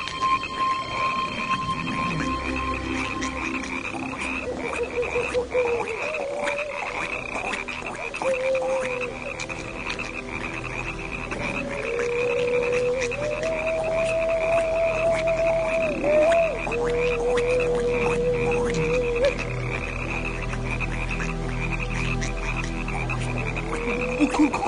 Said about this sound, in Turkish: Şuraya bakın. Her taraf kurbağa doldu.